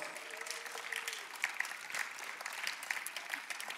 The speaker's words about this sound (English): And now let's give our production team a big round of applause